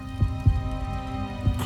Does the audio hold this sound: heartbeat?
yes